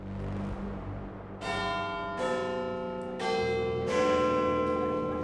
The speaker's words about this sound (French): L'horloge de Big Ben indique 14h30.